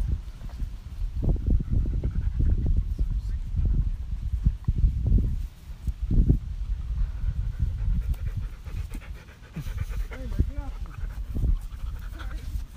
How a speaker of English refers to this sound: Like just a bunch of dogs just coming around us